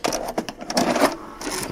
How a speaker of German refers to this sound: Dann lege ich mal eine schöne Kassette auf.